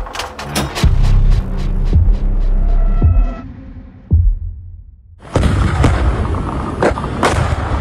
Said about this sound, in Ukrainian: Готов! Гармата! Огонь! Ствол на ноль!